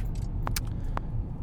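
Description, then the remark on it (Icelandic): A car driving on a road at night in the dark, 8 degrees outside, a steady, loud low rumble of engine and tyre noise that never lets up, with a few brief light clicks or jingles on top. “Núna vorum við að geyra fram hjá uh, korputörki.”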